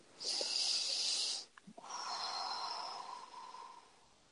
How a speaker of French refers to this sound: Alors, une respiration.